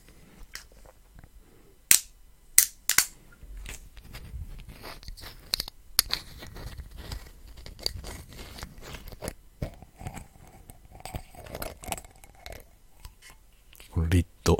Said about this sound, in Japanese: あの、リッドサウンドっていうね、蓋の音も好きですね。バカルディ。サンティーゴ、キューバって書いてありますね。